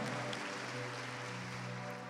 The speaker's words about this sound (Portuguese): Vamos mais uma vez agradecer a Deus, dando um lindo aplauso.